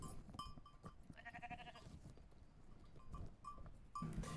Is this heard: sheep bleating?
yes